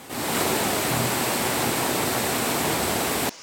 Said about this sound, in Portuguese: Essa escadaria virou uma cachoeira. Ninguém conseguia sair ou entrar em casa.